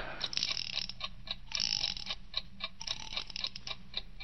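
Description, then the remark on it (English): A small mechanical alarm clock, set for 3 o'clock, ticks steadily and rapidly, with bursts of ratcheting, scraping clicks mixed in as its key is turned to wind it up. “First, set the alarm. When she gets back from shopping around 2.30, you better set it for 3 o'clock. Good. Now then, wind it up.”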